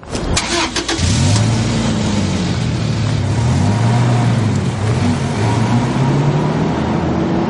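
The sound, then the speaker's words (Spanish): A young man gets into a van and starts it; the engine cranks with a brief clatter, catches, and settles into a loud steady drone whose pitch rises and dips repeatedly as the van pulls away and shifts gears. “El chico se monta en la camioneta y arranca.”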